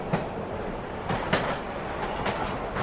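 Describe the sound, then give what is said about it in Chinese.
A late-night subway train runs with a steady, loud rumbling roar, broken by a few sharp rail clacks at irregular intervals. No one speaks. “深夜地铁，有一些稀奇古怪的人可以慢慢观察。”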